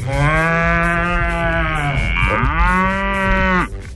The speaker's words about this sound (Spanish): La que captó el segundo es la vaca y el primero es el toro. Está más traqueado.